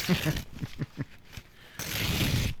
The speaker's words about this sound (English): it's fun, isn't it? Tearing up paper.